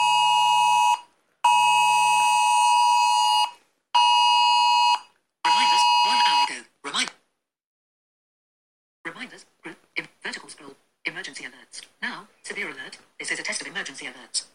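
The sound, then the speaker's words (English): A loud UK government emergency alert blares from a Samsung Galaxy S9 phone with its screen off and ringer on silent: four long, harsh, buzzing tones with short gaps, then a brief final burst, followed by a voice speaking. “I didn't think my S9 would go off because it's uh screen off. Ringer silent.”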